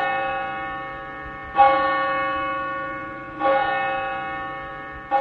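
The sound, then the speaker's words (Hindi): A large bell tolls three times at a slow, steady pace, each deep, resonant strike ringing out and lingering in a long humming decay that overlaps the next. No voices are heard. “इसके लिए बहुत जरूरी है कि भारत में एक विशाल काय घंटा लगाया जाए”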